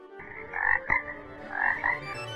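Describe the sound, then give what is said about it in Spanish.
A greenish toad croaks twice in a row, each call a raspy, pulsing burst with a short click between them, loud against a quiet background. “Aunque como era muy aficionado a croar por las noches, tampoco la dejaba dormir con sus serenatas.”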